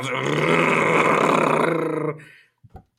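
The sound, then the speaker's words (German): A voice imitates someone drilling with a power drill, a loud, steady, gravelly buzz held for about two seconds, then cuts off, followed by a couple of short, soft mouth noises. “Aber wenn es schon bohrt, und ich habe ihn ge gehört, ich stand ja in der Tür, so,”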